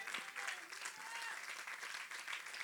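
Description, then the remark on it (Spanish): An audience claps in sustained, dense applause for the Lord in the morning, a steady wash of many hands with a few faint voices mixed in, continuous and fairly loud throughout. “Denle un aplauso al Señor en esta mañana.”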